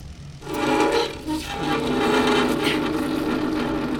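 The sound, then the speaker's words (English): A heavy wooden desk scrapes across the floor to block a door, in a long, loud, grinding drag that starts after a brief pause and continues steadily, with a brief hitch partway through. “Hurry, that desk over there. Block the door.”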